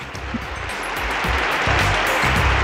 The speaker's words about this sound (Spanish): Más fuerte, por favor. A ver, te aplaudimos con ganas.